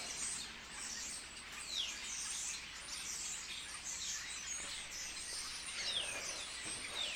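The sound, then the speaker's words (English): A steady, busy chatter of starlings fills the scene with high chirps, clicks and occasional sliding whistles, continuous throughout, with no voices present. “These starlings.”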